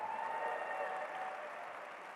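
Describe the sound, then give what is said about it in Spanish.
A church audience applauds the Lord during a sermon in a dense, steady wash of clapping that holds at an even, fairly loud level throughout, with a faint sustained tone running underneath. “Hey, dale un fuerte aplauso al Señor.”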